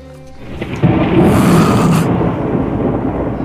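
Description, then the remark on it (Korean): A loud thunderclap cracks at once and rolls into a long, heavy rumble that slowly fades, with a steady rain hiss underneath and no voices; thunder during a rainstorm. “지금 천둥이 막 우르르 콱콱 쏟아졌어 지금 막 난리야.”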